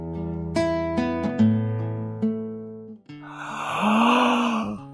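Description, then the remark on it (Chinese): A storyteller reading the picture book 'Little Bear Baby: Sleeping' imitates the little bear's yawn, a single long, breathy, drawn-out 'aah' that swells and then fades, following a few seconds of gentle plucked and sustained musical tones. “小熊打了一个哈欠。”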